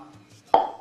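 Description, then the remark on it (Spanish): A single hollow pop of a cork pulled from a wine bottle sounds sharp after a quiet moment, then rings briefly and fades. No one speaks. “Ruidos que me gustan, por supuesto cuando hagas una latita de cerveza o de gaseosa, o el descorche del vino que suena así.”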